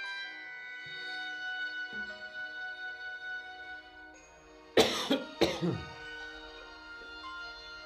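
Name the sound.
coughing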